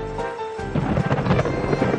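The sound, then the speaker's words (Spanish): Steady rain begins to fall at night over an open-air street festival in Madrid, growing into a heavy downpour, a dense hiss that thickens after a quieter start, with a low rumble underneath. No one speaks. “En la verbena se ha hecho de noche y empieza a llover.”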